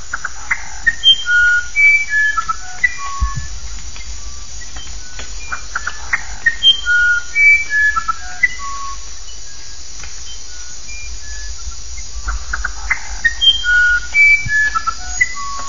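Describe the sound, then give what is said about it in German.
A small flageolet wren (Flagellett-Zaunkönig) sings clear, flute-like whistled phrases of pure notes stepping up and down in pitch, in three bursts separated by pauses, over a steady buzz of insects. No one speaks. “Der Flagellett-Zaunkönig flötet Passagen, die verblüffende Ähnlichkeit mit Melodien von Bach oder Haydn haben.”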